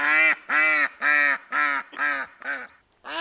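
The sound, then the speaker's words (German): A duck quacks in a steady series of about seven loud, nasal calls, evenly spaced, the last few slightly shorter and fading a little. “Da haben wir die Ente. Das Geschnattere.”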